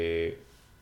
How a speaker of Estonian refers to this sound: see oli pardi hääl, hääl või? see kõlas nagu pardi hääl, aga see oli lihtsalt äh, see. vibratsioon. vibratsioon jah